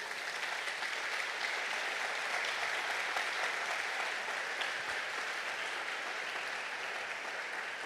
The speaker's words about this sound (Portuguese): Se você entende isso, dá um aplauso lindo para ele.